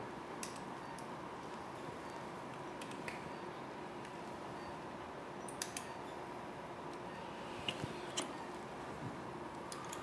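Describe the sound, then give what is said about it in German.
Crisp metallic snips from surgical scissors during an operation by a main surgeon and two assistants, several short clicks scattered irregularly over a steady hum of room noise, moderately quiet, with no one speaking. “Schere.”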